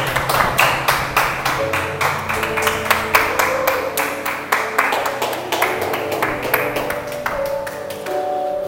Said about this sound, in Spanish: Dale un aplauso y ponte de pie.